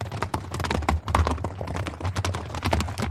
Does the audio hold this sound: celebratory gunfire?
no